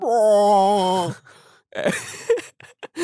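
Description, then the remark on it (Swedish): A person vocally mimics the yowling of two sibling cats mating: one long, wavering, moaning wail held for about a second, followed by brief breathy murmurs and laughter-like sounds, fairly loud. “Eh, eh, och då, så ser jag ju då att mina två katter som är syskon eh, har sex med varandra.”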